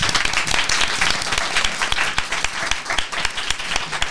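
audience applause

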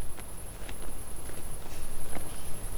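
footsteps walking through woods

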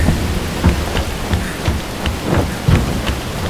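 thunderstorm with heavy rain

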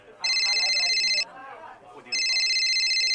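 phone ringing

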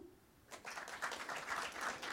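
audience clapping

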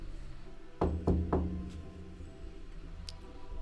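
knocking on a door

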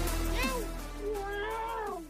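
cat meowing

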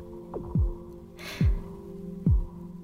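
heartbeat sound effect

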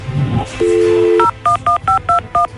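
telephone keypad dialing tones

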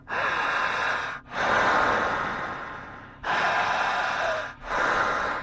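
rapid

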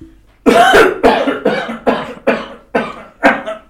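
coughing

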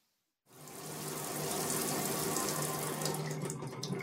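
shower water running

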